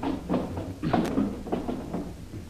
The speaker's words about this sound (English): I want this room to look as if a cyclone had hit it. Pull out the drawers in that dresser there.